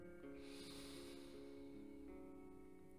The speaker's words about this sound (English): I'll try to release that now by just breathing in